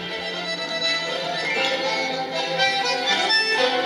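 Tango music plays steadily from a phone, with rich sustained instrumental tones swelling and layering, thin in the bass as if from a small speaker, fairly loud and continuous with no voices.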